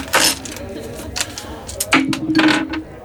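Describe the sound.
Dice clatter and rattle as someone rummages through a bag, with a few sharp clinks and a small game piece clicking down; a brief murmured voice sounds partway through.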